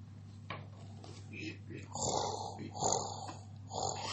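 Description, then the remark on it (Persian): A voice imitates a big, furry bear snoring as it sleeps in a log, with a series of rough, rasping snorts repeating about once a second, moderately loud over a low steady hum. “هنوز صدای خور پف خرس می اومد”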